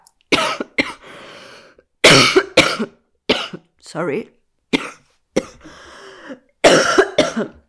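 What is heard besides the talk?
coughing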